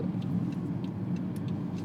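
A steady, low rumble of a car in motion, with continuous engine drone and road noise at an even level, and faint higher ticks now and then. No one speaks.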